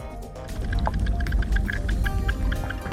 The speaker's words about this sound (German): So klingt ein schmelzender Gletscher